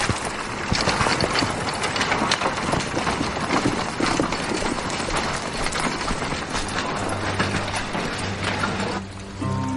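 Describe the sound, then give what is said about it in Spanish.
Hooves clip-clop in a steady, busy rhythm as a horse-drawn carriage gets moving, with a continuous rumbling, rattling noise beneath. The sound stays loud throughout, with a low hum emerging near the end. “Sentado en su carruaje, el rey besa la mano de doña Juana.”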